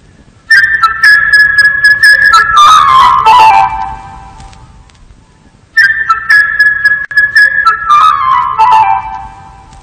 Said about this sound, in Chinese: 小鸟的主题音乐，长笛以高音区的明亮的音色吹出快速、频繁、旋转般的旋律。使人们仿佛看见小鸟在天空中愉快地飞翔，叽叽喳喳地唱着歌。